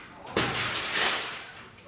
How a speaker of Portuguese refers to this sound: A polícia precisou arrombar os portões e quebrar a porta para entrar no prédio